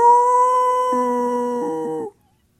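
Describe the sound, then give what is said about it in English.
A man sneaking through bushes at night, pretending to be a werewolf to scare children, mimics a werewolf howl: one loud, sustained, steady-pitched cry lasting about two seconds, with a lower wavering tone joining near the end before it cuts off into silence. “So I would kind of just crawl out into the shadows, you know, and uh, I could hear them out there talking, and I'd be sneaking up through the bushes, and I'd go, Roo!”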